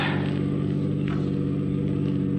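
A car's engine rumbles steadily from inside the vehicle as it drives to the river, a loud, continuous low drone with a faint brief swell midway and no voices.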